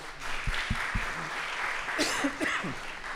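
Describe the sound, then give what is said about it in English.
A crowd applauds in a steady wash of clapping, with a few sharper individual claps standing out and faint voices mixed in near the end. “So now, uh, well, let's applaud because I will have.”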